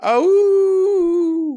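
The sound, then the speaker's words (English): A single voice imitates a war horn call: one loud, sustained low hoot held steadily for over a second, then tapering off. Nothing else is heard. “That was a terrible call. Horn sound.”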